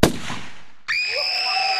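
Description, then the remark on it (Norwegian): A single loud, sharp gunshot crack in a radio theatre drama; its echo fades over almost a second, then an abrupt shrill, sustained ringing tone. No one speaks. “Jeg har skutt!”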